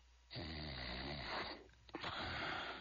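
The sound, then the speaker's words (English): A man snores loudly, two long rasping breaths with a wheezy, rattling texture, separated by a brief pause. “That's the sound of a man guarding his home around the clock.”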